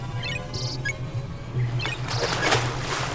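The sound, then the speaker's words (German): Repeated high-pitched squeaks and chirps coming from behind a lighthouse, several short bursts scattered over a steady low hum, moderately loud, with no one talking. “Äh, du merkst, dass äh, dieses Piepsen äh, und diese Geräusche hinter dem Leuchtturm zu sein scheinen.”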